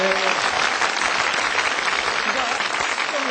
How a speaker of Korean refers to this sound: 7.8점을 기록을 했습니다. 여러분 박수를 보내주십시오.